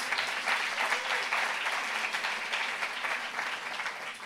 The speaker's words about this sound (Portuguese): Será que você pode dar um aplauso ao Senhor Jesus?